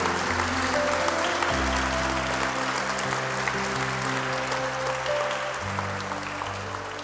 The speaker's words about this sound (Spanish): Damos un aplauso también por este lado, bienvenido.